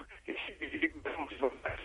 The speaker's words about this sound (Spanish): se te oye muy mal. No sé si podrías acercarte más al teléfono o no moverlo porque se interrumpe la conexión.